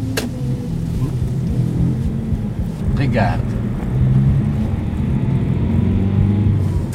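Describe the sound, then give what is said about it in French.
A small sports car engine drones steadily while driving, a loud low rumble with shifting tones throughout, and a voice briefly speaks over it. “Euh, ah, la fameuse petite voiture euh, de sport.”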